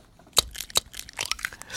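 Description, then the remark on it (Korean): A handmade sound effect of an egg being cracked: two sharp taps against a hard edge, then a brief crackling, crunchy rustle of breaking shell. No voices, fairly quiet. “계란 깨는 소리예요.”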